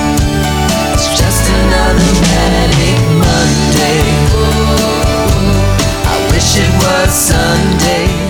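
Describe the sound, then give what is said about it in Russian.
A rough demo recording of a pop song, the songwriter's own version, plays loudly and steadily: a full band with bass, drums and keyboards backs a singer's voice for the whole stretch; the sound is odd, as if a newspaper were laid in the piano. “Если я не ошибаюсь, это вообще демо-версия, то есть это пробная запись, но ну, может быть и студийная.”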